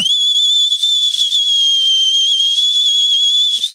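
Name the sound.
loud two-finger whistle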